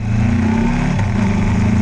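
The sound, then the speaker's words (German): A motorcycle engine runs loud for the whole stretch as it is ridden up onto the crest of the Sinakarin Dam in Thailand, its low throbbing drone shifting slightly in pitch as the throttle changes, with no voices present. “Schnell bin ich mit dem Motorrad auf die Dammkrone hinaufgefahren.”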